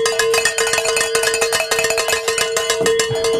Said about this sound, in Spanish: No alcanzaron a tocar las ah, campanas en la hora pasada ellos porque no les dio. Vamos a tocar las campanas en nombre de Robert, ¿verdad?